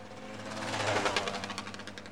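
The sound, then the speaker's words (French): A small two-stroke engine buzzes steadily at a high, sharp pitch, its rapid rattling pulses filling the short clip with no talking. “C'est très aigu, c'est très pointu, c'est un son vraiment tout à fait particulier le deux temps.”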